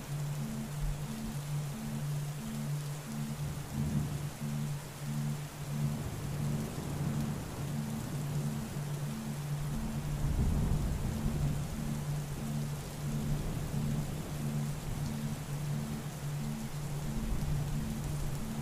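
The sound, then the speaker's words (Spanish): Steady rain from a summer thunderstorm pours down with a constant hiss while low thunder rumbles beneath it, swelling into a heavier roll midway before settling back. No voices, just the storm. “Si somos naturaleza, ¿a qué se parecería una tormenta de verano en un ser humano?”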